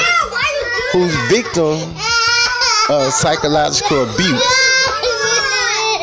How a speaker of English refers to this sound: you can hear my kids in the background. They supposed to be taking a nap, but they playing Die Hard because they want to control. They don't want me to do this.